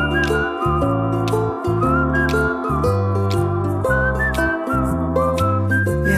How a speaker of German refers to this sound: Pfeif noch ein bisschen weiter.